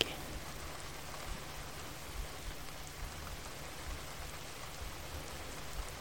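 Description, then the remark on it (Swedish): Steady rain falls continuously, a dense, even patter of drops hitting surfaces with a soft hiss and no voices over it. “Och känna en tacksamhet till att du har möjligheten att uppleva regn.”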